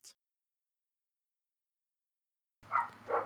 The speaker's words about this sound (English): I love how my dogs really enhance my audio right there. Oh we yes, I, I can hear it. we could just we could just start an ASMR channel with just dogs. oh yes, we totally can.